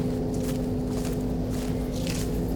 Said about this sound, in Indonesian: tapi derap langkah kakinya ada di belakang Rena